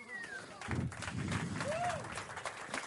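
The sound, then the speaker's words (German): A short burst of applause, with steady overlapping claps running throughout and a voice or whoop rising briefly above the clapping midway. “Applaus”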